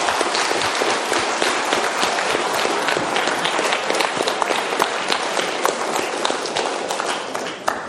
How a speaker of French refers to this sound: En tout cas, je crois qu'on peut l'applaudir, c'était magnifique. Merci.